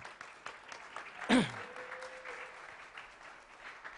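A crowd claps steadily in sustained applause for a participant, with a brief loud burst and whoop-like cry near the start rising above the dense patter.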